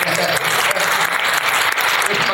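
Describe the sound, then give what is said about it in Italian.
A burst of audience applause at a dubbing Q&A for the voice actor of the character Ricco Giovane: many hands clapping in a dense, steady wash of noise that stays loud and even for a couple of seconds, with no voices on top. “Lui, devo dire, è, interessato, gli farei un applauso, alla voce di Ricco Giovane.”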